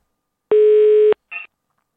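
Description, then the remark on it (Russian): A single loud, steady telephone ringing tone sounds on the line for about half a second, then a brief crackly burst follows before silence. “Ну что, гудок есть, нет?”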